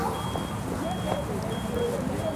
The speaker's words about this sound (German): Wo piept's jetzt? Da das ist immer das Gleiche. Wenn wir irgendwo sind, dann piept's.